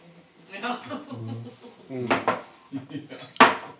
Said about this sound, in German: Na dann stoßen wir an auf ein wundervolles Jahr 2022.